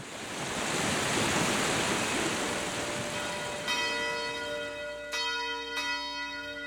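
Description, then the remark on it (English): The bell in the town hall tower of Pasarón strikes three times, each clang ringing out with a long, resonant hum, heard over a steady rushing wind-like noise that fills the background from the start. “The town hall building is annexed by a tower that stands out, where a bell and clock are located, which had an old mechanism that was especially curious.”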